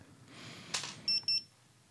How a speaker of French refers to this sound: Ça, y est, on te l'a acheté, tes enfants T'as acheté un détecteur d'homme mort Si tu tombes, c'est bon, ça a mis un signal ah, joue pas. Donc ça clignote toujours Ouais. C'est le bip bip.